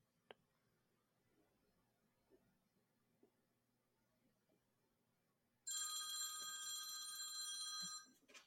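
A telephone rings loudly with a harsh, buzzing electronic bell tone that starts abruptly after a few seconds of quiet room noise and continues steadily for a couple of seconds before cutting off.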